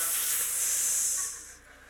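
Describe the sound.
A voice imitates a snake's hiss: one long, sharp, airy hiss held for over a second before trailing off, fairly loud, with no talking.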